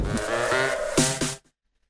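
A sheep bleats once in a long, quavering cry, loud, lasting just over a second before cutting off abruptly into silence.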